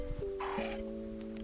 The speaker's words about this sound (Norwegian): Det var lyden av gulpin.